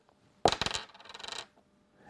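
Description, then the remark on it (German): A die is rolled onto a table for the seventh throw in a series: a sharp first hit, then a quick run of rattling, tumbling bounces that fade out after about a second. It lands on a 6. “Mein sechster Wurf. Eine 3. Mein siebter Wurf.”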